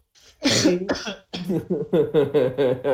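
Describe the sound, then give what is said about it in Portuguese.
A couple of small coughs caused by dust, then a quick rhythmic run of short voiced bursts like a throaty fit trailing off. “Tossidinha do mal aí.”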